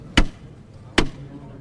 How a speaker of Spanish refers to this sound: Se ha detenido el paso casi a punto de llegar a la puerta de la basílica. Se está terminando de, de arriar el paso y ahora pues ya se están ultimando los, detalles. Va a tocar de nuevo el martillo